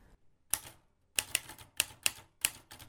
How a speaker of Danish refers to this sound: Hun havde fået en skrivemaskine hjem, og den havde en hård og fred lyd. Rystende krøb den lille pige til sidst i seng igen og faldt om sider i søvn, mens lyden af skrivemaskinen værkede som små hammerslag i det lille trætte hoved.